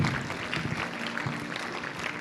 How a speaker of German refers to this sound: Lass uns den mutigen Personen einfach mal einen Applaus geben.